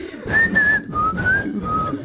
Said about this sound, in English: You're the loudest, worst whistler ever. It's like 40% air. It's not even a song.